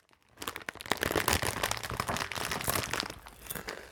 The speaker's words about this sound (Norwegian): En pappa skrev et humoristisk klagebrev til Nidar om plagsomt knitrende godteemballasje.